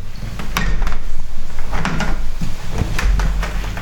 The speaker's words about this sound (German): ja, machen wir einfach mal zu jetzt. Die Fenster.